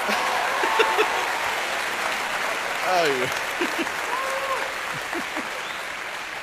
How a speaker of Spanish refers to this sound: El aplauso para mí, señores.